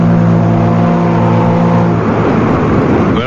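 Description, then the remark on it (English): A riverboat gets underway with a loud, steady engine drone and a deep harmonic hum, which gives way partway through to a rougher, churning rush of noise. No voices. “The majestic boat moves out into the stream.”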